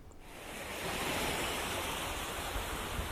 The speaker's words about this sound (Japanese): 寄せては返す波をぼんやり見ながら何も考えない時間いいですね